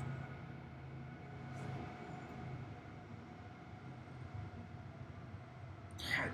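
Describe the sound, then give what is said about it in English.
A big, heavy train rumbles past with a steady low-frequency roar and rattling wheels, ending with a brief metallic screech near the end; no one speaks. “damn train. It is that damn. That's train. one of the big ones too.”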